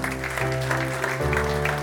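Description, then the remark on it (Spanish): An audience applauds in a steady, dense wash of clapping that lasts throughout, with sustained keyboard or organ chords holding underneath and shifting pitch partway through. “Denle un aplauso fuerte al Señor porque Él es bueno.”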